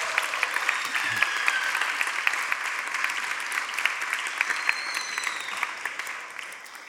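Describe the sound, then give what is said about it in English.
Sustained church audience applause for the OKC children's leaders, a dense patter of many hands clapping at a steady level for several seconds before gradually thinning out at the end. “So, can we just give a round of applause to any OKC leaders?”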